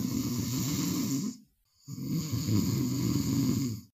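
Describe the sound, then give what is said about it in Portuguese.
A man napping in his office chair with a newspaper over his face snores loudly, two long rasping snores separated by a brief silent pause, with no talking. “Em seguida, ele põe o jornal sobre seu rosto e tira uma soneca.”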